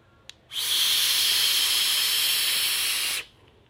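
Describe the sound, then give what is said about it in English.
A loud, airy rushing hiss lasting about two and a half seconds, a single steady inhale drawn through a vape with wide-open airflow, its two extra air holes unscrewed open, preceded by a faint click, with no talking. “I like not using those because using those it becomes um, just too airy and loud and turbulent for me.”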